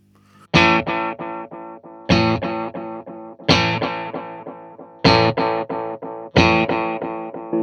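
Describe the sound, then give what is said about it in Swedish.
Distorted guitar chords played through a delay pedal, struck in five loud bursts, each followed by a string of decaying, saturated delay repeats that stutter rhythmically before the next strum; no voices. “tar man upp den då får man alltså volymen på så man kan liksom dista, dista. ekot lite om ja.”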